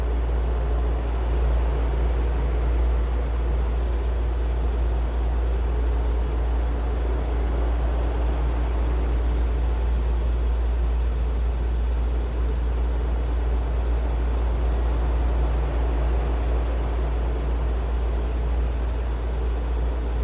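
A continuous, unchanging white noise fills the whole stretch, a dense hiss weighted toward a deep low rumble, holding the same level throughout with no voices or other sounds.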